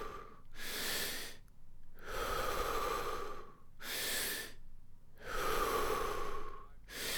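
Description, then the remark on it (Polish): Deep, rhythmic breaths cycle steadily during a guided breathing exercise, forceful inhales alternating with long rushing exhales, loud, about three full breath cycles with no talking. “Wdech, wydech.”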